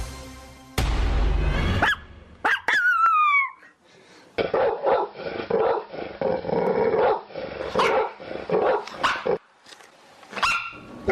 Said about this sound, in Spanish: Bueno, pues estos seres a los que cuida el sacerdote, pues claramente son perros. Nuestra historia sonora de hoy tiene que ver con algo que pasa en una iglesia allá en Brasil.